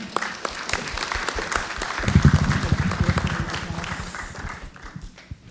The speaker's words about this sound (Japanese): どうぞ皆様大きな拍手でお迎えください